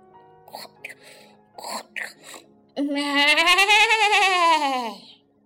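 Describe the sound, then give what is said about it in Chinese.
After a few short vocal bursts, a voice imitates a snoring sheep with one long, loud, wavering bleat whose pitch rises and then falls over about two seconds. “绵羊在打鼾呢”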